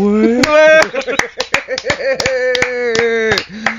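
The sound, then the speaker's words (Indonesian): Sharp hand claps ring out in a quick irregular series, about a dozen crisp smacks, layered over sustained sung or hummed vocal tones throughout. “Keprok dulu, diam lagi.”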